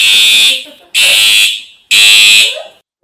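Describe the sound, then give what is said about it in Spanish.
A loud, shrill alarm sounds in three long blasts of about half a second each, separated by brief silences, harsh and bright with a strong high-pitched tone. “Volvemos después de la alarma.”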